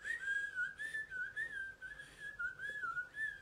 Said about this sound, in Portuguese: Pfeifen é assoviar. Ou é, como é que fala? Assobiar ou é assoviar? Não sei como é que fala mais isso. Mas pfeifen é fazer assim.